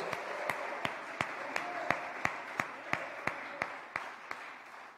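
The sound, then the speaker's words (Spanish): Audience applause with sharp, evenly spaced claps, roughly three per second, standing out over a steady wash of crowd noise that continues for the full five seconds. “Otro aplauso para ellos.”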